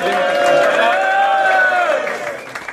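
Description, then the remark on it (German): A crowd at the Major Days 2 battle rap event in Cologne cheers and shouts loudly for a rapper, a dense, steady roar of many voices that holds for a few seconds, then starts to break up and thin out toward the end. “Macht Lärm für ihn.”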